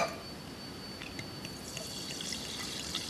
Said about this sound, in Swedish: att du tar öppnaren, öppnar flaskan, häller ur flaskan i glaset. Det här kan alltså bli slabbigt va? Nej, det låter bra än så länge.